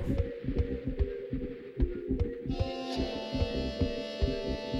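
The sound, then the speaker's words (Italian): A dense, low throbbing hum pulses steadily, layered with sustained droning tones that thicken midway as brighter harmonic overtones join in, with no voices present. “Drone music. Sì, un po' meno punk sicuramente, ma ha il suo perché.”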